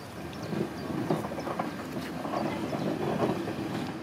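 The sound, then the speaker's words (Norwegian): A train creeps slowly out of a siding at a level crossing, a steady low rumble of wheels on rail broken by faint metallic creaks and squeaks, with no voices. It is an old boxy British railcar converted to run on hydrogen, at a technology centre west of Birmingham. “Ut fra et sidespor knirker et tog seg sakte fram.”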